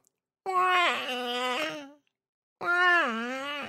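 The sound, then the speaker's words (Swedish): A voice imitates a bird call heard from afar in a voxel-based game: two drawn-out, wavering wailing cries, the first longer with bending pitch, then a short pause and a second rising call, loud. “Och så man, det var så här voxelbaserat så man kunde höra på håll eh, en fågel så här bara.”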